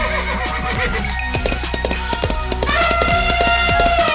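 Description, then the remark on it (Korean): A voice imitates a running horse, with a drawn-out whinny rising in pitch near the end over a steady, rhythmic clip-clop of galloping hooves, loud throughout. “아, 여기 동물의 왕국입니다. 말이 달리고 있고요.”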